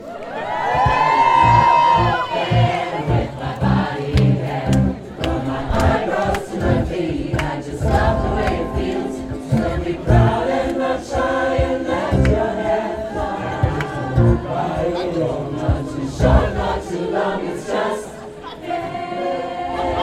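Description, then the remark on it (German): A concert crowd cheers loudly and continuously, with whoops and shouts rising over a dense roar, while music with strong beats plays underneath; recorded from the side of the concert. “Aber wir hören mal rein, wie sich das angehört hat.”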